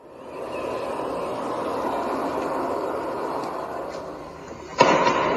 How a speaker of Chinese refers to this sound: 然后第二天说不是因为爆炸，是因为有一个飞机突破音障了，然后形成音爆。就当你的速度达到音速超超过这个声速以上的时候，就相当于前面的空气会挤压，然后形成一个爆炸的声音。